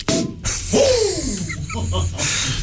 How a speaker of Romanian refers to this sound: L-am certat pentru că deschide sticla cu, cu foarte mult uh, zgomot și i-am spus că nu așa se face, nu trebuie să se audă nimic.